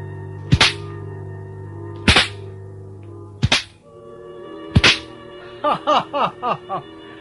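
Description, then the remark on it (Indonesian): Four loud, sharp whip cracks ring out a second or so apart, then a quicker flurry of lighter cracks, all over a steady low background hum with no talking. “Mendadak keheningan suasana itu pecah dengan terdengarnya cambuk yang menggeletar beberapa kali.”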